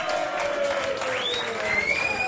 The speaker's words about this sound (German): Bitte ein warmer Applaus.